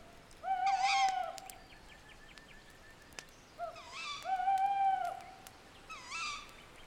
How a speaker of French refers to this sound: Chaque son est plus présent le vent au loin, le bruissement des feuilles, le hululement du hibou.